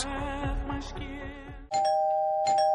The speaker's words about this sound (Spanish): Este es el timbre de tu casa la próxima Navidad.